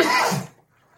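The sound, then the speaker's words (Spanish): A single loud, explosive sneeze bursts out, sharp and breathy for about half a second before cutting off into near silence. “Perdón. Salud.”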